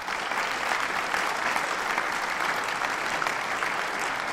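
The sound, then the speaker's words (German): Steady applause from a group, a dense patter of many hands clapping at an even loudness for a few seconds, with no voices over it. “Ich bin, äh, ich, ich finde, das ist doch durchaus mal einen Applaus wert, oder?”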